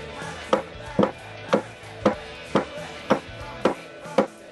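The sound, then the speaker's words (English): Steady, evenly spaced sharp knocks, about eight in a row, made with a phone and another object to imitate a knife and fork banging on a really big table. Each hit is a crisp clack with a brief rattle, and there is no talking. “This is knife, his knife and fork on a really big table.”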